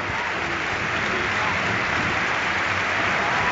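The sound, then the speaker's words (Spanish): A stadium crowd at a Barça football match gives a sustained ovation as Gaby goes off and Sergio Busquets comes on as a substitute. A dense, steady wash of clapping and cheering holds at an even, loud level throughout without any clear pauses. “Ovación de gala.”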